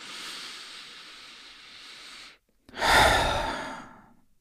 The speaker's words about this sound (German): Lass deine Augen geschlossen und weil es so schön war, atmen wir noch einmal tief ein und aus.